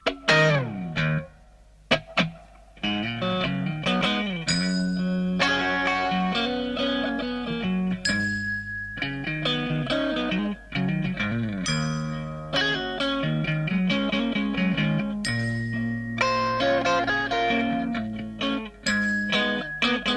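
An electric guitar rock recording plays with no talking, clean-toned chords and melodic lead fills shimmering with a chorus-like effect over a steady, mellow groove at a slow tempo.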